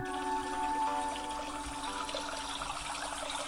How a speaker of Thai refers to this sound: เขาหมุนหูของเขา และเขาก็ได้ยินเสียงลำธารต้นน้ำที่ไหลรินก้องกังวาน